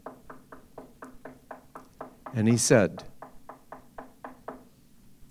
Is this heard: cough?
no